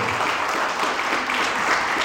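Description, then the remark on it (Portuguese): An audience applauds during a sermon, a dense wash of many hands clapping at once with no gaps, holding an even, fairly loud level throughout. “E sobre aqueles, amém, que aplaudir, aplaudam.”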